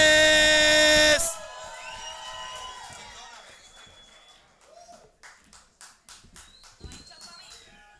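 A loud burst of tones opens into a crowd's dense applause mixed with whoops and whistles, thinning into scattered individual claps as it fades.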